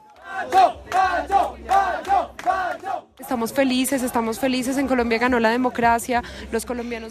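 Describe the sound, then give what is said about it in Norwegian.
Colombians at the election-night vigil of the No campaign against the peace agreement between the FARC guerrillas and the government chant in unison that they did it, first in short rhythmic bursts with brief pauses, then in a louder, continuous sung chant with many voices overlapping. “Ja, vi klarte det, synger colombianere på valgvaken til nei-kampanjen.”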